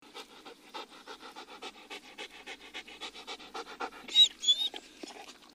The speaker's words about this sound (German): Als er ein Weilchen fortgegangen war, fand er einen Jagdhund auf dem Wege liegen. Der jappte wie einer, der sich müde gelaufen hat.